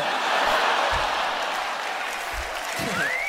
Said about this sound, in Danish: Det, som det sidste, det var lavere, ikke? som det egentlig var, havde tiltænkt, det skulle være det store klap til allersidst, og ikke efter heste.